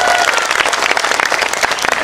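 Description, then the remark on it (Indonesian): A crowd applauds loudly and steadily, many hands clapping in a dense, continuous patter with no talk on top. “tabahkanlah hatimu Pak Banser saya minta semangat tepuk tangan dulu dong buat banser-banser kita luar biasa”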